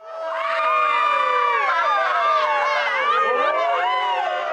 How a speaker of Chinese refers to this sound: 又往前几步，它听到更大的尖叫声。